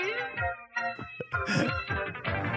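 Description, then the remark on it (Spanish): A short burst of the theme song intro of the anime Gatos Samurai, bright and busy, with layered melodic tones and quick shifting notes playing loudly and continuously for a couple of seconds. “Tengo aquí el intro que te voy a poner.”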